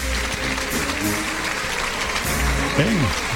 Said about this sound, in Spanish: Una eh, ovación, fuerte ovación y unánime la ovación. totalmente. Ahí la ovación para Sebastián Castella, unánime, sin duda.